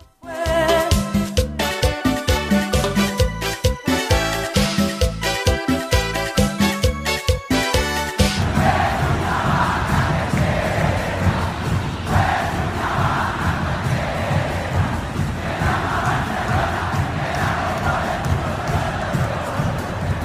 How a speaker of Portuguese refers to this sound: a gente ouve a música 6 do Emelec, a torcida vai cantar sob a versão de Una Granja com encanto da música Tengo una vaca Leteira